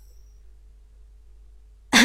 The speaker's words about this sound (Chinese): 苏哲咳嗽一声